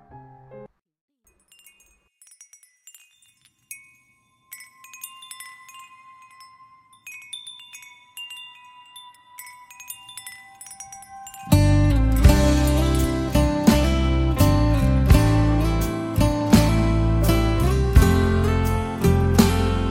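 Wind chimes tinkle softly and irregularly, their bright, high, ringing tones overlapping for about eleven seconds before a full band of music suddenly comes in much louder and takes over.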